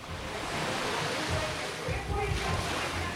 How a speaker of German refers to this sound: Die Wellen prallen direkt auf die Betonterrasse. Nicht nur bei Aunt May, sondern den gesamten Uferbereich entlang.